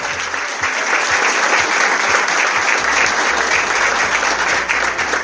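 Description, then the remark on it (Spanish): Sustained applause from an audience for the winner of the best actor in a scene award, a dense wash of many hands clapping at steady loudness for the whole stretch, with no voices standing out above it. “fuerte aplauso para ella nuevamente.”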